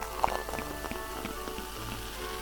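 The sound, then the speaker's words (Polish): Fine, steady crackling fizz of champagne bubbles popping in a glass just after pouring, fairly quiet, with scattered tiny ticks and no talking. “Mm, na razie nic nie wąchamy, po prostu na razie nalewamy. I słyszą Państwo? Bąbelki.”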